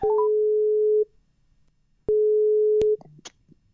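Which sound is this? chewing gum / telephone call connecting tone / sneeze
telephone call connecting tone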